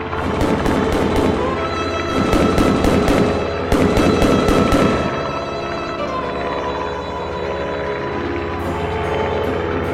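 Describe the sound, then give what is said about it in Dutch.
Loud, rapid bursts of gunfire crackle in quick clusters for about five seconds over a steady, low droning hum, which then continues alone with no voices. The gunfire is aimed at a German Heinkel 111 on reconnaissance over France and Belgium on 20 April 1940. “Het wordt zwaar onder vuur genomen.”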